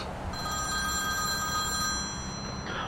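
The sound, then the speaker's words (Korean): A phone's ringback tone purrs steadily for a couple of seconds during an outgoing call made from Cheonan, a clear electronic ringing over a low background hum, with no one speaking. “아, 왜 형을 번지스러 안 알려줘가지고 형한테 전화해봐야 되겠다.”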